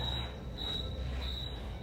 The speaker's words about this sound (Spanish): Este va a ser mi último día que esté en el fuerte en la noche. Aquí se están escuchando los grillos.